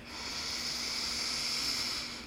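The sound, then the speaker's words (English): A slow, steady breath drawn in through the nose, a soft airy hiss that swells gently and fades over a couple of seconds, quiet with no talking. “You might take a breath in through your nose here.”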